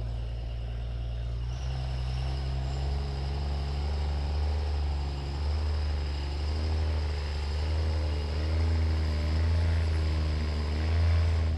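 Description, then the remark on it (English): Deep, throaty rumble of two pickup truck engines idling together at a drag strip as the trucks inch toward the first staging light, steady and loud throughout, with a slight wavering in pitch. No one speaks. “Both both trucks inching towards that first light.”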